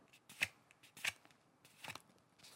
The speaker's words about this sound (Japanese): そういう音が今流行ってるんでその BGM じゃなくてその紙を折る音